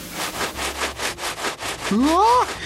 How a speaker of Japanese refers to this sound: 髪の毛がブラシになって車を磨き始めた